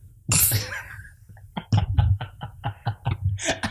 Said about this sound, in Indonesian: Pantesan batuk saya karena ini ya.